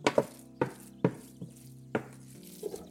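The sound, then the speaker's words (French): A utensil knocks and scrapes against a metal saucepan in a series of sharp, irregular taps with a faint ringing tone, as mashed food is transferred back into the pan. No talking. “Ça y est, l'écrasée est prête. Je la remets dans ma casserole.”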